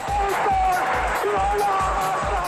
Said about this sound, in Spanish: Cuando escuchamos la grada rugir, es la pasión que se hace sentir.